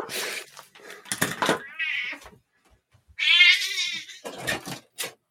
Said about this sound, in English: Is that your cat? Sorry. Yes. let me let me pause you there for a second. Kick her out.